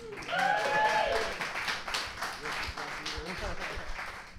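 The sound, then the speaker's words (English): An audience applauds steadily for several seconds, a dense rattle of many hands clapping at once, with crowd voices and a short whistle near the start, easing slightly toward the end. “A lot more applause from that side than that side.”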